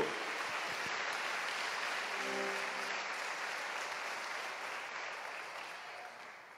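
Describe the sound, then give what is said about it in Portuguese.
An audience applauds the Lord steadily in a dense, sustained wash of clapping that holds for several seconds and tapers slightly toward the end, with a faint voice murmuring briefly underneath. “Então você pode aplaudir o Senhor por Ele ser tudo para você.”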